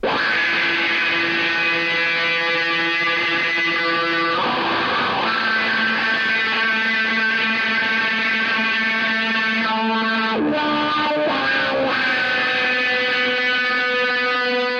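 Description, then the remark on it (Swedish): Electric guitar played through a wah pedal, loud sustained distorted notes whose tone sweeps and shifts, with a brief break near the end before the chords ring on. No talking. “För länge sedan jag hörde en wah på det här sättet.”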